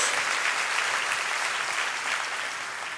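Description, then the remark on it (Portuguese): A church audience gives a round of applause to the Lord in the name of Jesus, a steady, dense wash of clapping that holds for the full three seconds and eases off slightly at the end, with no voices standing out. “No nome, pode dar uma salva de palmas assim ao Senhor, no nome de Jesus.”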